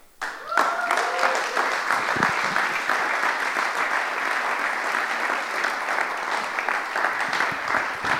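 A large audience bursts into sustained, dense applause that holds steady for several seconds, loud, with a few brief cheers or whoops near the start, welcoming a speaker onto the stage.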